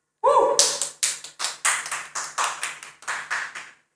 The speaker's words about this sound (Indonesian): Terima kasih untuk tepuk tangannya.